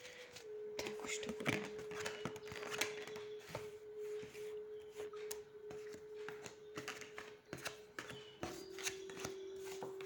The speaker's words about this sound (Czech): Tak já už se dívám na vaše fotky, uh, míchám u toho karty a podívám se teda spolu, co nám ta řekne o tomto partnerském vztahu.